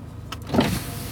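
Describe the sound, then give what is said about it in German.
A short electric motor whir as a car's roof opens on a very hot day, moderately loud, rising and fading within about a second over a low steady background hum. “Zack, Dach auf.”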